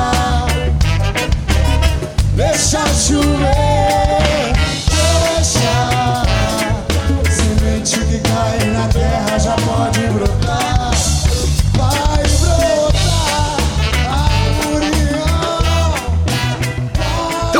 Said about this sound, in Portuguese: Começamos ouvindo o hino, a abertura oficial do planeta durante todo este tempo.